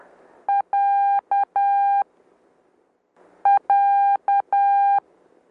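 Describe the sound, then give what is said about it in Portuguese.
Steady Morse-style beep tones spelling the letter A repeatedly, short and long pulses alternating in dot-dash pairs, in two clear groups separated by a pause of about a second and a half, over faint background hiss, with no talking. “Tem a letra A três vezes, ó.”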